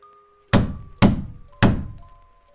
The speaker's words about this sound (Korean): 문 밖에서 둔탁한 소리가 들렸습니다. 그것은 문을 두드리는 소리였습니다.